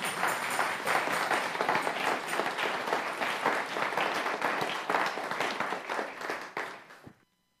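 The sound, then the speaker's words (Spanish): An audience applauds for someone who called out "yo lo creo", steadily with dense, overlapping claps for about seven seconds, holding a fairly even loudness before it tapers and stops abruptly. No one speaks over it. “Un aplauso para quien dijo, yo lo creo.”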